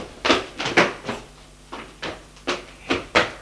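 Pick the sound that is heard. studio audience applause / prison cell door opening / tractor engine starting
prison cell door opening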